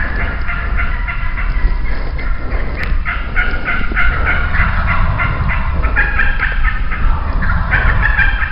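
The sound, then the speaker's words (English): A big flock of wild turkeys in West Virginia calls nonstop during a turkey hunt, a few toms gobbling in repeated rattling bursts over a dense, continuous chatter of clucks and yelps from many very vocal hens, with no talking. “lots of gobbling from a few toms surrounded by a big flock of very vocal hens”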